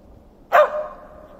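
A single sharp dog bark rings out, loud and abrupt, then trails off quickly into quiet with no other sounds or voices around it.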